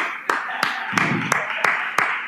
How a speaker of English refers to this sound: Yes and amen. I'm glad you're clapping. Elders, you heard the clapping, okay? Heard the clapping.